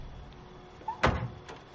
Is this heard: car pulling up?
yes